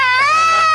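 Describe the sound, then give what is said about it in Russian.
A brief, loud, high-pitched wail, like a child bawling in one sustained sobbing breath, with the pitch drifting slightly upward; it sounds like a voice acting out the crying. “Перестань реветь, ты мне мешаешь чихать!”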